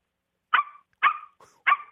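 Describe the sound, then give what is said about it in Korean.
A middle school first-year student imitates a small, cute puppy yapping: three short, bright barks evenly spaced, with a fainter little whine between the second and third, clear with no other sound. “첫 번째는 귀여운 강아지요. 귀여운 강아지 갈게요.”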